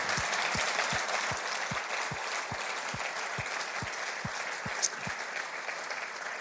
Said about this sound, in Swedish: En riktigt varm applåd.